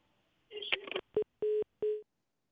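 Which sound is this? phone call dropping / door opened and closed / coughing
phone call dropping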